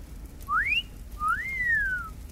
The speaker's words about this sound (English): As he gets closer to the young lady, he looks her up and down like a piece of meat he is openly leering at her. He whistles.